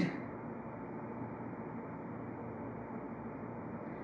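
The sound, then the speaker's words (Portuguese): A steady, low engine drone runs continuously without change in level, a muffled mechanical rumble filling the background with no voices present. “Ao som de um motor,”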